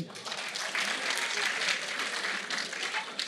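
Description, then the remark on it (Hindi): An audience at an inter-university team event applauds for the Jawaharlal Nehru University team, named the Ahmad Faraz team, a dense wash of many hands clapping at an even level throughout the few seconds, with no voices breaking through. “अभी आपने सुना कि जवाहरलाल नेहरू यूनिवर्सिटी की टीम का नाम है अहमद फराज टीम उनके लिए तालियां बजाइए”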